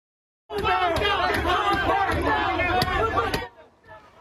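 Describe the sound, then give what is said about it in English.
A loud, chaotic crowd of looters attacking an Arco gas station near Central and Alondra in Los Angeles shouts and yells over one another for about three seconds, with sharp banging and crashing impacts punctuating the din, then the noise drops away to faint murmuring. “Uh, here's a bunch of people attacking a gas station because I guess getting Slim Jims over at Target is a little too much for them.”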